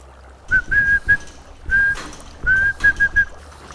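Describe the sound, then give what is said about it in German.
A single steady whistled tone broken into short and long beeps, like Morse code, whistled into the microphone of an unusual Morse-code door lock, with brief pauses between groups and no talking. “An der Tür befindet sich ein untypisches Morse-Schloss. Dazu gehören Mikrofon, in das man pfeifen kann.”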